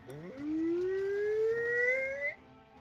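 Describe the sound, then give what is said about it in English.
A falling bomb's whine: one loud, sustained whistling tone that climbs steadily in pitch for about two seconds, then cuts off abruptly, with no voices. “Um, he's going to step over here, and you hear that familiar whine.”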